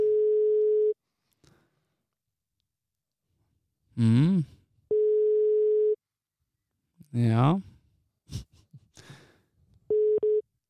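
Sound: telephone ringing tone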